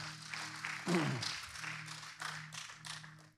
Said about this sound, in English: Hey, can you give this band and Ray and everybody who works so hard every Sunday morning a big round of applause?